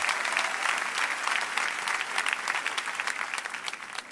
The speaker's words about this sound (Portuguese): Vamos recebê-la com um aplauso.